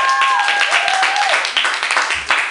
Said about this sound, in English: Clap your hands. You've been there. Yeah.